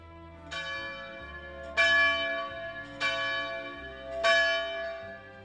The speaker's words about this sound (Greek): Εσήμανε μία μικρή καμπάνα